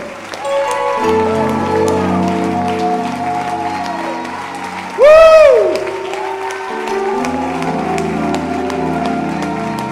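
An audience claps steadily throughout, with sustained singing or music beneath and a loud, rising-and-falling whistle or cry cutting in about halfway through.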